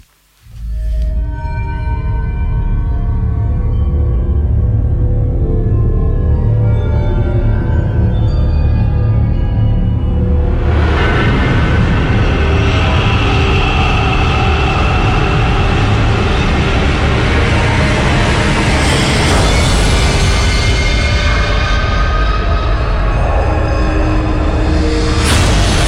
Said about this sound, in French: donc issu de, la BO de Massacre à la tronçonneuse